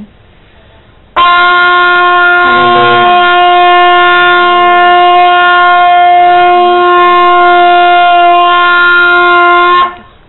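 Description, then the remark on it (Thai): A single loud, sustained trumpet blast holds one steady pitch for about nine seconds, bright, then cuts off abruptly, sounded during a Christian worship gathering. No one speaks over it. “Let's open our hearts เราเปิดหัวใจของเราตอบสนองต่อเสียงตแตรที่ดังขึ้น”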